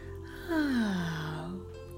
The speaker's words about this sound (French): Tu bailles un peu